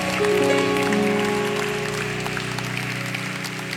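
An audience applauds for the King of Kings and Lord of Lords with steady, dense clapping that holds at an even level for several seconds, while sustained low keyboard chords ring underneath.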